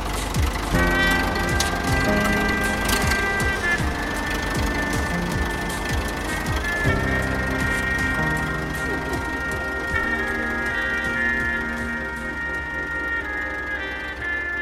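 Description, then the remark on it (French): An old tractor engine runs loud while driving a lap toward the far end of a field, a steady rumbling drone with a rattly mechanical whine that holds for the whole stretch, easing slightly toward the end. “Ça dépend des tracteurs, c'est un vieux tracteur.”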